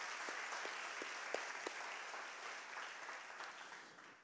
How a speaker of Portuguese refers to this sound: Quantos podem dar uma salva de palmas a Ele por isso, então? Amém?